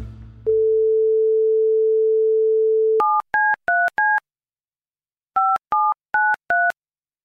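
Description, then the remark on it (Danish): A phone handset clicks up, a steady dial tone hums for a few seconds, then two quick bursts of four touch-tone keypad beeps are dialed with a short pause between them. No one speaks. “så den eneste mulighed, jeg har, er, at jeg ringer derned, og så må de give mig en mail, så jeg kan sende den her anmodning om agtindsigt.”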